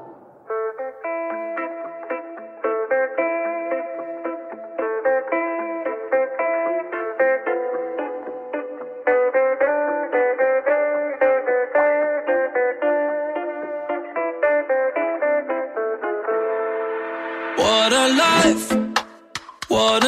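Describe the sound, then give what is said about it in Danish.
An upbeat pop song plays clearly on the radio, with a steady rhythmic keyboard and synth pattern; near the end the mix opens up into a brighter, fuller, more intense section with crashing cymbals. “Her lette sangen … af …, der er jo nok mest kendt som temamelodien til filmen Druk”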